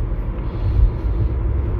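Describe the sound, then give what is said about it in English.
A steady, loud low rumble fills the space, like the road and engine drone inside a moving car, continuous and even with no voices or distinct events on top. “Mostly because I can record them in the car, which means I'm creating content even when I'm not at my computer.”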